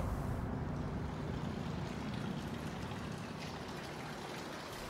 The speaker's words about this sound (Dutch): Net als de fontein aan de ingang. Die stopt ook nooit. Meer nog, die is overal te horen, waar je ook bent in het gebouw.